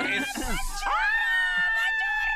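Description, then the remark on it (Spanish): A woman lets out a loud, piercing scream that holds one high, steady pitch for well over a second, after a brief burst of noisy vocal sound. “Ese, ese grito es nuevo, ¿eh?”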